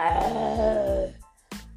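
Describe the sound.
A deep, rumbling tiger growl at the entrance of a tent rises loud for about a second, then fades away, followed by a short sharp thump after a brief pause.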